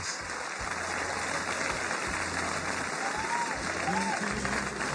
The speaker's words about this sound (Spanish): Mejor recibamos con un fuerte aplauso a la gran actriz Consuelo Luzardo.